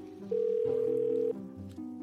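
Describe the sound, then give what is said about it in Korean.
A single steady telephone ringback tone of an outgoing call to the caller's mother sounds for about a second over a low background murmur, followed by faint muffled noise. “제가 살다 살다 턱이 빠진 게 처음이라 너무 놀라서 일단 제일 먼저 생각나는 엄마한테 전화를 했습니다.”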